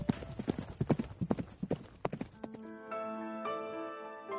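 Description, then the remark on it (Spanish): Horse hooves clip-clop in a quick, uneven run of sharp knocks for about two seconds, then give way to steady sustained musical tones. “Durante esta ruta los españoles perdieron unos cuantos caballos que cambiarían el modo de vida de navajos, comanches y apaches.”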